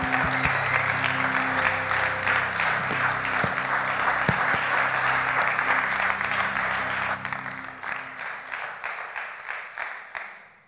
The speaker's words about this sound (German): und ihm richtig großen Applaus geben.